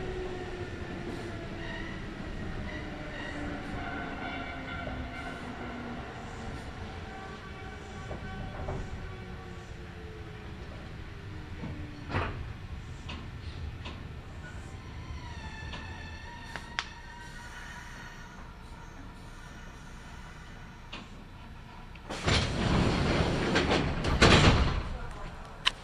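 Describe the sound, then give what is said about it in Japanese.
A local train slows into Nida Station, station number E28, its motor whine gliding down in pitch over a steady rumble, then a loud burst of hissing and clatter near the end as the doors on the left side open. “The doors on the left side will open.”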